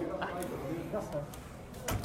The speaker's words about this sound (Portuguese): Fechou a cara, a porta na cara aqui.